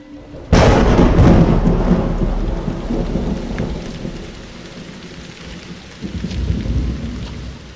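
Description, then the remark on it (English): A loud crack of thunder breaks out and rolls on over steady heavy rain during a powerful afternoon storm under a nearly black sky, with a second rumble swelling near the end; no one speaks. “The Hope's landing has been complicated by powerful storms over the region.”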